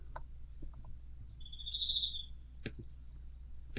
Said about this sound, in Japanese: 鈴虫も祝福してくれてますわ。そうですね。島根の鈴虫が、うん、もしくはよくやったと言ってます。そう、埼玉の私を、ねぎらってくれている。